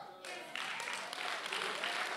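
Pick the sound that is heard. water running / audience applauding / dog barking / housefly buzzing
audience applauding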